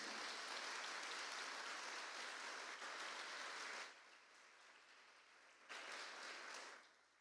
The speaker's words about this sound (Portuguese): Então vamos aplaudir a Cristo bem forte.